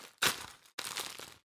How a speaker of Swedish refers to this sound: Det här är ljudet av mig som öppnar en klapp.